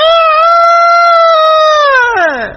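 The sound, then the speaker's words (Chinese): A voice imitates an old rooster's crow as one long, loud, high nasal cry. It holds a steady pitch for about two seconds, then slides downward at the end. No other speech is heard. “这老公鸡，呃得得”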